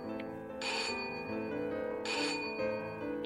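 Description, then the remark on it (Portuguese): An electronic doorbell rings in two short, bright bursts about a second and a half apart, fairly loud, over a steady humming tonal background with no talking. “A campanha só começou a tocar quando ela me reconheceu”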